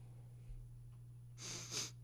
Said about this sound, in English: Did you just sniff? My nose running.